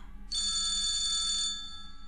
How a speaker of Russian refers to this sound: Это был городской телефон. Вспомнив о правилах, я снял трубку и поднес ее к уху, стараясь следить за временем.